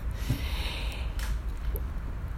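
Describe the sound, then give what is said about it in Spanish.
An airy slurp of mate drawn through a metal straw, a hissing, gurgling sip lasting a couple of seconds with a brief sharper rasp midway, and no talking. “Un ruido mate no puede faltar, ¿no?”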